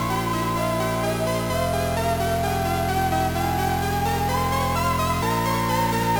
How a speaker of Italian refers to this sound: Questo è Devil Crash per PC Engine. Porca puttana, sentite che violenza!